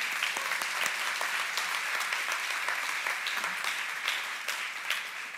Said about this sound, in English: Come on, if you're gonna clap, you better praise him. Come on, let's praise him.